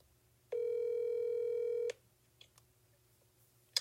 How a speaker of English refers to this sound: I don't know what happened. Anywho, um, my phone just like hung up. I was like, what in the world?